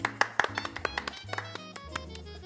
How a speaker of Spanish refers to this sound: y vamos a darle un aplauso a la familia que contrató eso.